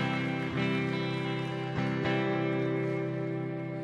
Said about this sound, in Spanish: Démosle un fuerte aplauso al Señor en esta tarde, iglesia.